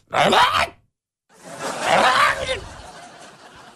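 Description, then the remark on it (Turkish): A voice mimics a cat's wailing cry, like sounds heard at 3 or 4 at night inside a residential complex, in two drawn-out, rising and falling yowls, the first short, the second longer and trailing off, fairly loud. “3'te 4'te sitenin içinde e, bir tane e, çocuk mu diyeyim, kedi mi diyeyim. Abi şöyle sesler geliyor.”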